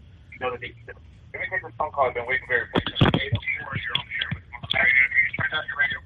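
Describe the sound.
Overlapping voices come through a thin telephone line from a caller to the Smoke Free Radio phone-in show, with the caller's own radio playing the live broadcast in the background and echoing the speech a moment later, fairly loud and continuous.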